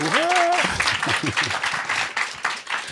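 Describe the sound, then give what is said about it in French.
A crowd in the hall applauds steadily for about three seconds, a dense wash of clapping, applauding to show who likes buying shoes on sale. A high vocal whoop rises at the start, and voices carry over the clapping. “Par applaudissement, qui aime acheter des chaussures en solde dans la salle”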